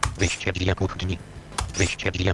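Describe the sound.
A single sharp click of the Enter key on a computer keyboard, pressed in system settings to switch the audio output option between analogue and digital, lands between short bursts of talking voice.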